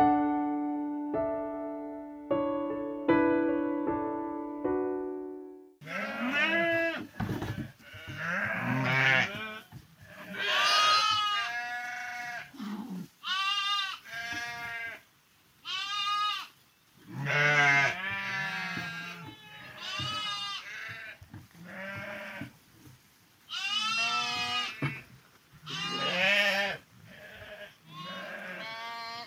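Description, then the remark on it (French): A ewe and her first lamb, a newborn male, bleat in a small pen in a sheepfold. Deep wavering calls mix with thin high-pitched cries, repeated loudly for about twenty seconds after a short steady tone. “Carnet sonore dans la bergerie.”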